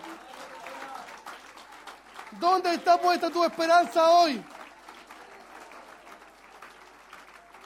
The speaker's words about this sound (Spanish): fuerte ese aplauso, hermano, que es para el Señor.